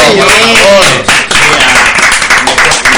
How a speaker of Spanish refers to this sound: Eso merece otro fuerte aplauso